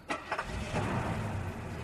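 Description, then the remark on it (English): A car engine turns over with a couple of quick bursts, then settles into a steady, low rumble as the car drives up by itself after its owner calls it with a remote clicker. No one speaks. “You walk out of the store, you forget where you parked your car, or maybe it's raining, you forgot an umbrella, you just hit your clicker, and then the car drives right up to you.”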